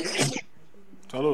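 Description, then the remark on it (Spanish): A single sharp sneeze bursts out, followed by a brief lull before a voice starts talking again. “Salud.”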